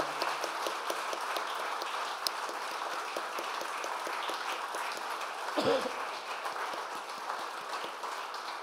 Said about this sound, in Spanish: Demos un aplauso al Señor Jesús.